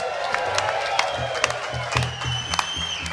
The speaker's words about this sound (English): Oh, that's a good one to finish on. Fucking round of applause for the boys.